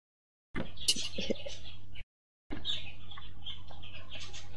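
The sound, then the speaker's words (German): Birds chirp and twitter busily in the background, in two stretches broken by a short silence, over a low steady hum. “du hast wunderschöne Vögel singen im Hintergrund”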